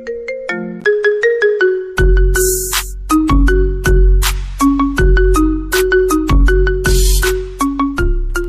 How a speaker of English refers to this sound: Can you identify the ringtone version of this famous country song? Let's find out.